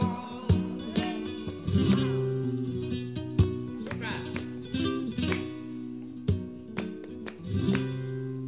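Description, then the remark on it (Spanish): A flamenco soleá recording in the pure Gitano cante tradition plays: strummed and plucked guitar with sharp rhythmic accents and sustained tonal lines, steady and moderately loud, with a strong low-mid harmonic body throughout. “Y nos dejó una amplia discografía, como por ejemplo estas soleas que vamos a escuchar ahora.”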